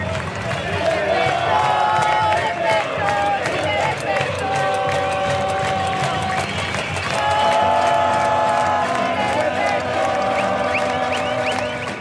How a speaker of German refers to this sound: Chile despertó. Chile ist aufgewacht, ruft die Menschenmenge auch an diesem Freitag Mitte November. Sie klopfen auf Pfannen und Kochtöpfe, haben selbstgemalte Pappschilder dabei, Halstücher und Gasmasken gegen das Tränengas